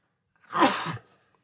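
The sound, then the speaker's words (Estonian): A single sneeze, a short breathy burst lasting about half a second, with no talking around it. “Nonii, tervist. tervist”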